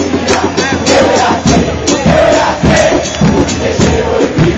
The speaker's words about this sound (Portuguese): É, vamos ouvir a torcida e depois a música correspondente